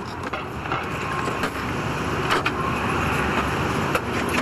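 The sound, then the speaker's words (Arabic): A steady, continuous motor drone of generators running at a halal food cart in New York, with a dense wash of outdoor street noise and no break throughout. “لما تسمعوا أزيز المواتير تعرفوا اقتراب عربية الأكل وصلنا عند حوت عربات الحلال”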